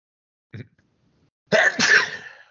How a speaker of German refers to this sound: Gesundheit. Vielen Dank, ja.